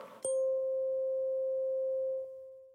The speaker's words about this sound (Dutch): En op het moment dat ze op één frequentie trillen, horen we zogenoemde zuivere toon. Bijvoorbeeld deze vork.